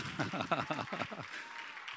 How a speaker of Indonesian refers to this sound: Yang tetap percaya itu berikan tepuk tangan bagi Yesus.